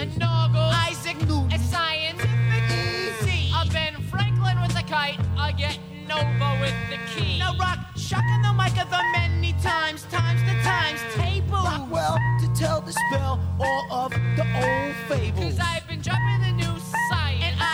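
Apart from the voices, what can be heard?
hip-hop rap song playing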